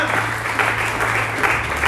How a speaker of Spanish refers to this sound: Y le pueden aplaudir fuerte a Dios que tiene cuidado de todo nuestro ser, espíritu, alma